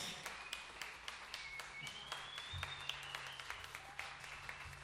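An audience applauds steadily for about five seconds for the composer, from the Faculty of Music, of the piece just performed: a dense, subdued patter of many hands clapping at once, with a low hum underneath and no one speaking.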